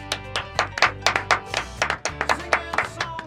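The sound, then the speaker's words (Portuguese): A short burst of hand clapping, a steady run of about a dozen sharp claps at an even, fairly quick pace, fading slightly toward the end over a low background hum. “Merece aplausos.”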